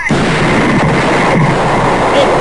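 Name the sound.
explosion sound effect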